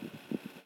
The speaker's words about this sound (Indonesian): kayak gue dulu zaman SD gitu gue liat kipas angin kayak gitu gitu yang bunyinya kayak gitu